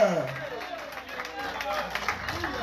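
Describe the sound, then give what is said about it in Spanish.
A crowd claps and applauds steadily for the King of Kings, a dense, sustained patter of many hands, with a voice speaking and calling out over the noise. “Habrá que querer el fuerte aplauso al Rey de Reyes.”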